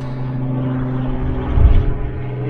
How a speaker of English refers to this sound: please excuse this helicopter flying over me.